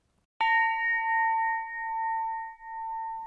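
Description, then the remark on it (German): The bronze jazz bell of the TU München (Technical University of Munich), built with a full A9 chord of overtones, is struck once with a sharp attack, then rings on in a long, steady sustain of layered overtones, a bright chord-like tone that barely fades over three seconds. “Doch was wurde jetzt eigentlich aus der Jazzglocke der TU München? Die ist inzwischen fertig.”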